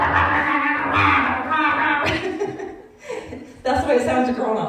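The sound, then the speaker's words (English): A voice growls and roars in rough, guttural bursts, imitating the screamo vocals of a Christian song, with short breaks between the harsh shouts; fairly loud, with no music behind it. “that don't listen to Screamo”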